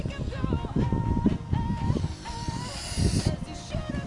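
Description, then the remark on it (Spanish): A duck quacks several times in a row, raspy and nasal, fairly loud over a rough, noisy background. “Esto es un pato, weón.”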